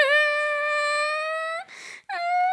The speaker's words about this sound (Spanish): Ah, tu hermana está llorando por nada.